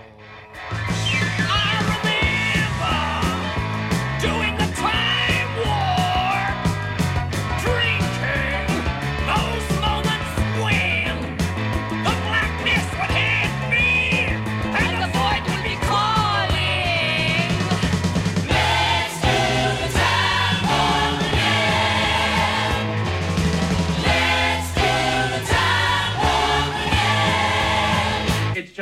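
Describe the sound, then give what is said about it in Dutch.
An upbeat rock song from a musical film plays loud and steady throughout, with driving drums, bass and guitar under lively sung vocals, in a full, theatrical ensemble style. “Maar je hoort hier ook heel duidelijk dat rock aspect wel weer in terug.”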